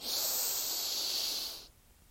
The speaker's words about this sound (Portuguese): Vamos dar uma respiração profunda agora, então, já que a gente não deu no começo, vamos só.